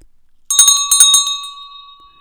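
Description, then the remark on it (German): A small office hand bell, held in the hand, is shaken in a quick burst of several bright, metallic strikes over about a second, then its clear high tone lingers and fades out. “war mehr oder weniger einfach eine kleine Glocke, die heißt Captain Bell. Ich habe die hier tatsächlich in meiner Hand.”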